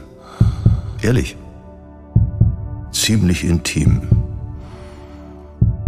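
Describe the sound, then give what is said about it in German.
Deep, muffled thumps of the speaker's own heartbeat, recorded very close with a studio speech microphone moved nearer, pulse steadily beneath the speaker's airy breaths, while a person speaks a few brief words over the top. “Was Sie hier hören, sind mein Herzschlag und mein Atem.”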